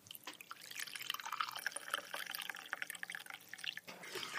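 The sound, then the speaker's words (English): Tea pours from a teapot made of chocolate in a steady trickle with splashing and dripping, running for about four seconds with a brief dip near the end. No one speaks. “And now for the moment of truth, we'll try and pour the tea out of the teapot.”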